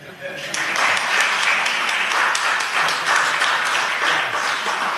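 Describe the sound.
A crowd breaks into sustained applause, dense overlapping claps starting abruptly and holding steady and fairly loud for several seconds, with faint voices mixed in.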